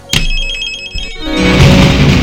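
A telephone rings with a bright, sustained electronic tone that starts abruptly and holds for about a second, then fuller music swells in underneath and takes over.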